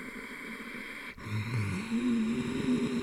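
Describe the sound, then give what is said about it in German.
After a brief break, a steady throaty breath rasps on for about two seconds, a low rumbling ocean-like hiss from a constricted throat during a yogic breathing exercise, with no talking. “Da gibt es äh, die Kategorie der Feueratmungen, kennt jeder Yogi. Zum Beispiel die Chor-Atmung.”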